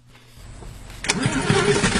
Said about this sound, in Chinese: 兔子哥发动清洁车准备回家，清洁车发出了咕噜咕噜的声音。兔子哥太累了，没有注意到那个奇怪的声音。